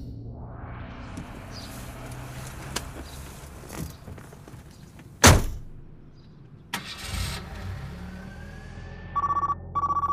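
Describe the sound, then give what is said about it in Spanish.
A car engine hums steadily with a sharp thump midway, then near the end a phone starts ringing through the car's hands-free system in short, repeated electronic tones over the engine. “Al menos se lo podré coger en el coche, con las manos libres.”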